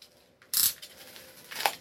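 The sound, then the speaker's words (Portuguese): Crisp crinkling of plastic bubble wrap being handled while unboxing books, with a loud rustling burst followed by a quieter stretch and a second shorter crackle. “E esse plástico bolha”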